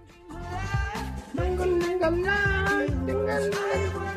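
An upbeat pop song plays steadily, with a melodic lead voice riding over a punchy, rhythmic bass and beat. The music is fairly loud and continuous, with no talking over it.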